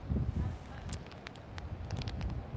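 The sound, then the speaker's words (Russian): Wind buffets the microphone outdoors at a scenic spot where a video is being filmed, a steady low rumble and gusty thumps throughout, with a few faint clicks and rustles on top and no clear speech. “Ну, столько у меня интересных идей, и ветер задувает, да?”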